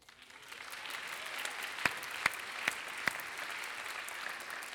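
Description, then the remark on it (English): A crowd applauds steadily, a dense wash of many hands clapping at an even level, with four sharper, louder claps standing out at regular intervals partway through. “You better be clapping because I was going to sign you up today if we needed anybody.”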